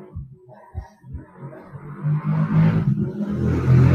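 A motorcycle engine passes by in Quilmes, Buenos Aires, Argentina, its low droning rumble swelling steadily louder over a few seconds after some scattered low thumps at the start.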